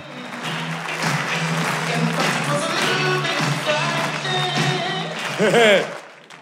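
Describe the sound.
An audience applauds a performer arriving on stage before anything has been said, in a steady, dense patter of clapping that lasts several seconds, with voices and some laughter mixed in over it.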